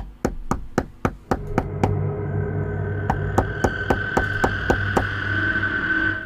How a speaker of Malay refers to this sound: Setengah jam kemudian, setengah jam kemudian. Dia main ketuk-ketuk pintu lagi